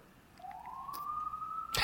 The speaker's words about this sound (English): I'm just going to keep the sirens in because you know we're talking about riots right now